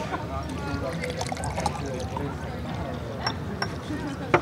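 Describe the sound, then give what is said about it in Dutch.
A drink is poured, a steady liquid trickle with a few small clinks and slurps, while people talk quietly over it. “Uh, dus even, Een slokje nemen?”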